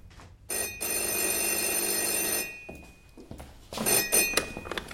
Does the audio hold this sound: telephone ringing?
yes